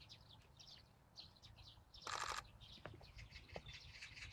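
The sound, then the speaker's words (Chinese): A magpie calls with a loud, harsh rattling burst midway, among scattered high chirps and shorter calls from birds throughout. No one speaks. “喜鹊使劲的叫。”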